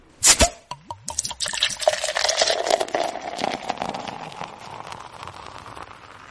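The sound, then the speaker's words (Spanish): A drink is poured into a glass in a home living room in San Juan, Argentina, starting with a few clinks and splashes, then a steady gurgling stream that slowly softens as the glass fills. “Permítanme servirme un trago.”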